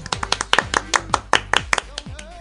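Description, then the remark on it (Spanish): Audience applause on the program El futuro es hoy, welcoming a special guest, thin and uneven: a short burst of sharp, crisp hand claps at an irregular pace, as if from only a few people, fading out after about two seconds. “Unos fuertes aplausos.”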